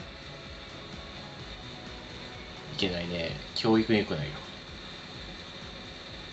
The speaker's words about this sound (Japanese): なんか、雑音すごいしてるけど大丈夫そう。急に。急にうん特に今何を止まった止まった。あ、じゃあ扇風、扇風機はずっと続けてたけど、拾っちゃったかな。